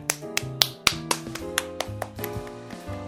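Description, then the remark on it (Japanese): A run of sharp hand claps, roughly ten in a loose steady rhythm, crisp, with a soft melodic backing sustained underneath and no voices, applauding the announcement of a talk theme on upcoming game releases. “気になる今後のリリース情報はい、拍手。”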